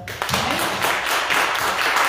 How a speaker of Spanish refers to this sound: Y vamos a darle un fuerte aplauso.